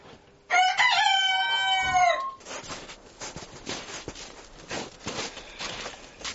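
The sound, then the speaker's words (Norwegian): Dwarf cochin chickens in a henhouse: one loud, high, drawn-out crow lasting about two seconds, followed by softer scattered clucks and scratchy rustling. “Så det var det to egg fra de nye og eh, to fra dvergkosinaen.”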